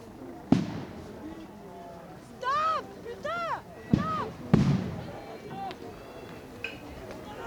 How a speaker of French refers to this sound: Voilà ce bruit, celui-là, c'est celui d'une grenade de désencerclement qui explose à quelques mètres de notre reporter.